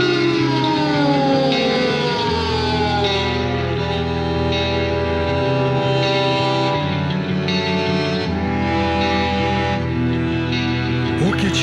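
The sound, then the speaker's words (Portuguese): A song plays loudly and continuously, with layered, sustained electronic tones drenched in echo that shift chords every few seconds; no voices stand out. “Com vocês, … e a música ….”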